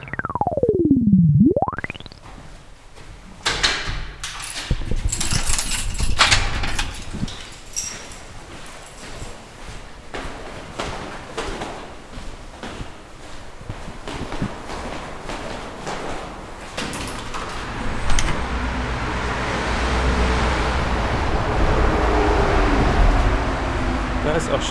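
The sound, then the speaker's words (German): A moving bus rumbles along with a steady low engine drone, rattling clatter and knocks from the cabin, a brief swooping whistle at the start, and a rising airy hiss later on. “fahrende Bus.”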